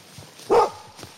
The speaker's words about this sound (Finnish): Tämä on näissä meidän karhupannotuksissa mukana tämä koira, että se ei yleensä turhaa kyllä haaku. Että tuolta tulee, tuule hajuu tuolta päin justiinsa, että se saattaa haista jopa.